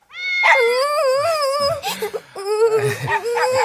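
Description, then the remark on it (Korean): A puppy named Merry Wall whimpers and yips, with high, wavering whines that rise and fall, broken by a few short yelps midway before the whining resumes. “아빠는 소야에게 그 강아지를 사줬고 그 강아지가 바로 메리월이다.”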